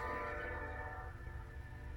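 A train passes, its low steady rumble carrying sustained horn-like tones that fade slightly over two seconds, with no one speaking.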